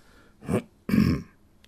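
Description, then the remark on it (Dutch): A polite little cough by Jeeves: two short, soft throat-clearing bursts in quick succession, fairly quiet, with no talking around them. “Jeeves kuchte beschaafd.”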